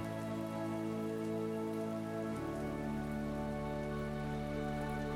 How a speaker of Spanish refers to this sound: Observa cómo con cada gota que escuchas, esta se sincroniza con el sonido de la lluvia y deja que la tranquilidad de ella entre a ti a través de tu respiración.